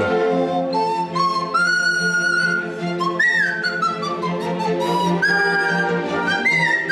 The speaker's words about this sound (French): Eh ben c'est pas un sifflet, c'est une flûte nasale.